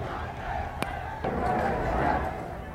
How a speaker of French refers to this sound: Mais la foule continue à manifester, vous l'entendez, devant les bâtiments de la préfecture.